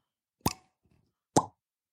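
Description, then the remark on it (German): Two crisp, hollow pops about a second apart, a person imitating with the mouth a cork popping from a wine bottle, fairly loud with near silence between them. “Und ähm, alles, was dann teurer wird, ist noch mit Korken. Achtung, ich versuche mal zu ploppen hier.”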